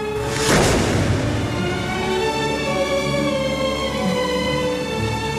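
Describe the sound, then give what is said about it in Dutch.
A single cannon shot, announcing the emperor's arrival on Saint Helena, booms out near the start, loud and deep, then fades into a steady, sustained musical drone that carries on to the end with no talking. “En na twee maanden kondigt een kanonschot de aankomst van de keizer aan op Sint Helena.”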